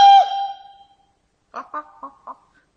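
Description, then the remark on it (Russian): A rooster crows loudly, the long call trailing away, then after a brief pause four short, clipped crowing syllables follow in quick succession. “И вось тринадцатый пеўнік вырашыў покинуть птушыны двор. Кукарыку!”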